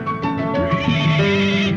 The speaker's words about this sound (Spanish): Ese caballo tiene hambre.